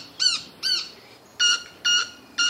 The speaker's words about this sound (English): Yeah, it's like it's called stridulation. So this is a cricket-winged manakin would be a perfectly good name for this bird. In any case, uh, something about that sound, that specific sound, excites the female.